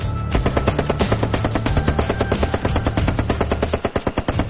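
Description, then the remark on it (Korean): Rapid fire from a semi-automatic rifle fitted with a bump stock, which makes it fire like an automatic rifle: a continuous stream of sharp, loud shots in a fast even rhythm, slightly breaking up near the end, with no voices. “소총까지 허용돼 있는데 근데 이 범프스탁을 부착을 하면 음. 이게 이제 자동 소총이 그렇죠. 되는 거예요. 막 갈기는 거예요.”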